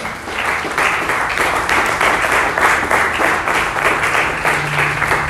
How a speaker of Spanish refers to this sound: Y pueden una vez más aplaudir fuerte a nuestro Dios.